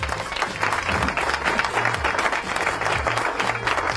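Sustained applause from a crowd, a dense, steady patter of many hands clapping at even loudness throughout, with some low murmuring underneath.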